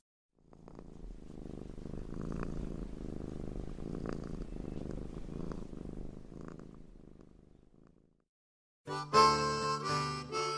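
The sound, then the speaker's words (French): A domestic cat, Gigi, purrs while being petted, in a steady, low, rumbling rhythm for about eight seconds, then falls silent before a short burst of music begins. “Gigi, pauvre petit chat. T'es toute perturbée. Oh, allez, viens. On va lui faire des petites papouilles.”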